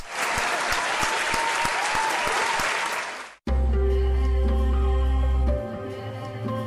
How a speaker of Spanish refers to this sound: Un aplauso.